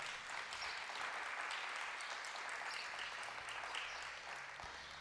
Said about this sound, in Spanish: Quienes quieren vencer esas tentaciones? Démosle un fuerte aplauso al Señor entonces.